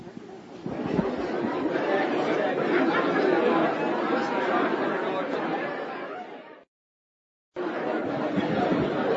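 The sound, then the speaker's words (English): A roomful of people talking in pairs, role-playing by reading questions from a brochure to one another, many overlapping conversations with much laughter, a steady loud murmur of chatter that cuts off abruptly for about a second before resuming. “I hope all of you can hear the noise in this room.”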